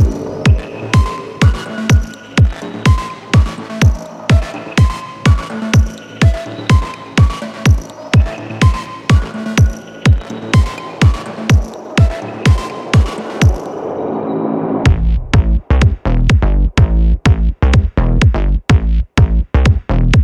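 A band's new music track plays loud, a steady thumping beat under sustained tones, then around the three-quarter mark it shifts into a denser, heavier section with punchier drums.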